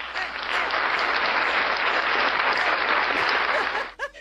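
A crowd applauds steadily for about four seconds, a dense wash of clapping that stays loud and even before cutting off, followed by a brief voice at the very end.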